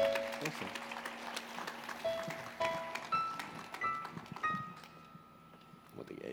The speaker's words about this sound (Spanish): Ahí está. Un aplauso, ¿no? Para ser lindo.